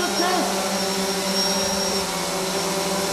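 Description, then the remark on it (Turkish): A drone's propellers hum in a steady, high-pitched mechanical whine that holds constant throughout, fairly loud. The drone is delivering gloves and masks to elderly and at-risk residents in Aksaray, Turkey. “Belediye Başkanı Evren Dinçer yaşlılara ve risk grubunda bulunanlara eldiven ve maskeleri dronla ulaştırdı”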